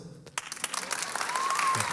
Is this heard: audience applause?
yes